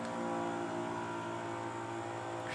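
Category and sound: tool, leaf blower running outside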